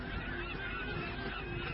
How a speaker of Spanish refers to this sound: El frenesí de las aves en la superficie indica que algún depredador se alimenta debajo y altera a los peces más pequeños.